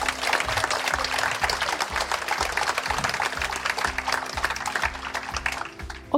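An audience applauds steadily, a dense wash of clapping lasting about six seconds, with a low rhythmic thump pulsing underneath before the clapping thins out at the end.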